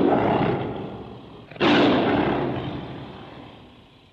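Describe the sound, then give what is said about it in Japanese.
A tiger roar sound effect with the slogan 'When in trouble, ask the tiger' for Fukkou Rehabilitation Hospital in Wakayama: a deep, rumbling growl that suddenly surges into a louder, harsher bellow and then slowly fades away. It is loud, with no voices. “困った時は虎に聞け”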